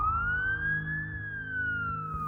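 police car siren approaching

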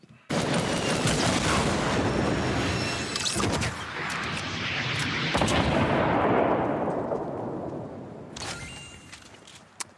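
video game gunfire

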